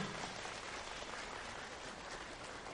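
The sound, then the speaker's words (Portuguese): A dense, steady patter of five fingers tapping rapidly, imitating heavy rain in a storm. The crackling wash is continuous and fairly loud, with no talking. “Esse é o barulho de chuva, mas mais forte.”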